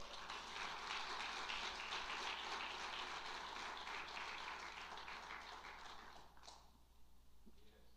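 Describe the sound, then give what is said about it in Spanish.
A crowd claps for Jesus Christ, a dense, even wash of applause that holds for several seconds, then thins and fades out near the end. “Le damos un aplauso.”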